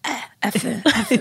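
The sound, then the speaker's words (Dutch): A phlegmy throat clearing in a few rough, rattling bursts, with a short spoken word or two mixed in. “Je hoort het slijm er al bij.”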